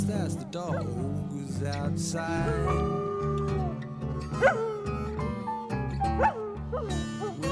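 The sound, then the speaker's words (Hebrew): A dog, brought into a studio and recorded, barks and yelps a few times over a slow song with guitar and singing, its sharp cries cutting through the music at moderate volume. “אבל ההקלטה של הנביחות של הכלב, או של חיות בכלל, יופיעו בהמשך הדרך.”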